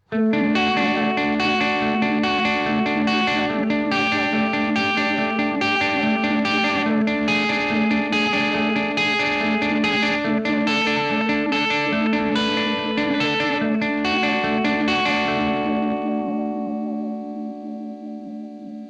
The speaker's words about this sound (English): arpeggiated pattern with a very warbly vinyl or almost like a really baked tape sound